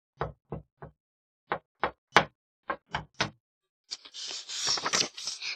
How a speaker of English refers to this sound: Oh no! And he heard a knock at the door.